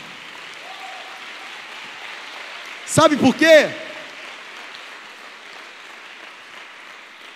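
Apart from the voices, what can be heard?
audience applause in church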